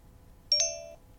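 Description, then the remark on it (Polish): A phone gives a short two-note electronic chime: two quick bright strikes, then a steady tone that rings out for about half a second and fades over quiet background, with no talking. “O, zadzwoniło.”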